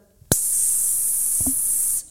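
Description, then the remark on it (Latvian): A voice imitates freon refrigerant gas hissing out of a freezer pierced with a knife: one long, steady, loud breathy 'sss' lasting nearly two seconds, preceded by a short sharp onset and cutting off abruptly. “Un man sejā iešļācās eh, freons. Freons ir gāze, kas ir atbildīga par to, ka leduskapis kaut ko saldē.”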